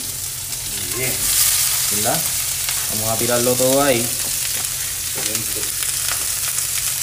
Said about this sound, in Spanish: Por lo menos en este caso, aquí vamos a, a lo que siempre llamamos, ¿verdad? Sofreír